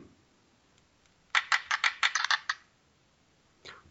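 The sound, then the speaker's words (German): A die is rolled to choose a newspaper page and clatters across a hard surface: a quick burst of sharp, bright clicks over about a second that settles, followed by one softer knock a moment later. Fairly loud, no voices. “Gut, dann würfel ich mit meinem ersten Würfel die Seite.”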